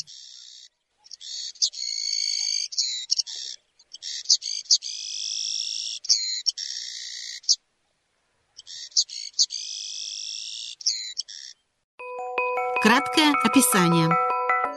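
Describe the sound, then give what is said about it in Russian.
A Menzbier's pipit, a small passerine bird of the Amur basin, sings a series of high, thin, buzzy phrases separated by brief pauses. Near the end a short burst of a different, layered ringing tone takes over. “Птицы бассейна Амура - конёк Мензбира”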